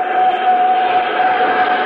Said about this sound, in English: Starting starboard jet, starting port jet.